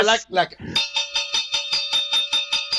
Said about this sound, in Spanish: déjeme, sonar la, campana del ring.